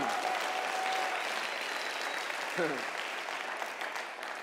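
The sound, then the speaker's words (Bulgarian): A crowd applauds during a sermon in a dense, steady wash of clapping that holds at an even level throughout, with a brief vocal shout rising out of it partway through. “Аз си мислих, че ще има жени, и зрели мъже, които ще пляскат на тия проповеди.”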